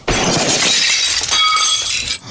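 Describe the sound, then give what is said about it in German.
A loud, sudden crash as a stand whose base was made too small falls into a stove, smashing and shattering, with sharp glassy breaking and scattering debris ringing for about two seconds before cutting off. No one speaks. “weil der Standfuß zu klein von mir berechnet wurde und es hat äh, in meinen Herd eingeschlagen”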